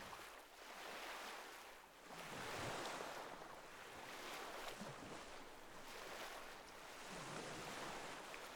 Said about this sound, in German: Der weiche Sand unter deinen Füßen gibt bei jedem Schritt nach, während die Wellen des Meeres sanft ans Ufer rollen und dich mit ihrem beruhigenden Rauschen umgeben.